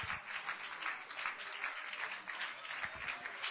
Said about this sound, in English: Come on, clap your hands. Let's praise Him for a minute right now.